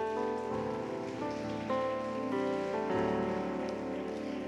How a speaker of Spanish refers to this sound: Dale una ofrenda de palmas a Él, por favor.